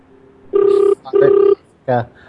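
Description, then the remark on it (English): A phone ringtone sounds two warbling rings in quick succession, fairly loud, followed by a short burst of someone's voice. “I would miss this ringtone down from Africa.”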